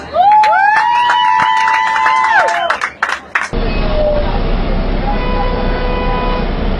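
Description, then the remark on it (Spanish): Shrill whistles and horn-like tones sound first, then a dense, steady wash of audience applause and crowd noise fills the rest, loud and continuous, as the audience applauds after a rhymed performance. “Y muchas gracias a todos los que quisieron escuchar, por escuchar la rima, por escuchar la voz regalan un aplauso que sea fuerte y para Dios.”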